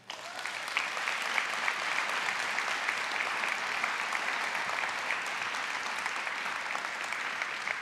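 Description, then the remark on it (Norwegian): Steady, loud applause from an audience at a landsmøte (national meeting), greeting a speaker as she is introduced, a dense rush of clapping that holds evenly for several seconds without voices over it. “Gi henne en god applaus.”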